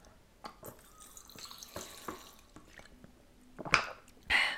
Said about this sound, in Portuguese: Agora pessoal pausa para a água, não é? Que eu ponho-me aqui a falar num bocado.